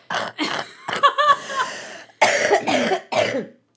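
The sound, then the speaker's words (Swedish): A person with a lingering cough left over after an illness coughs repeatedly, a run of about five harsh, chesty bursts with short gaps between them, a few dragging into a rough, throaty rasp. No one is talking. “Ja, men jag är frisk, jag har bara hostan kvar.”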